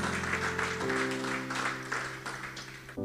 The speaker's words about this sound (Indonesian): Pasti kalau saya sekarang berkata yang setuju saja, boleh tepuk tangan bagi Tuhan Yesus.